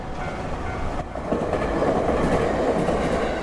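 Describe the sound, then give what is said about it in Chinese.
A blue-roofed street tram in Istanbul rumbles past with a steady low rolling roar and faint rhythmic clacking of wheels on rails, building slightly louder after the first second; no one speaks. “他们一路走着，偶尔蓝色车顶的路面电车就会从身边经过。”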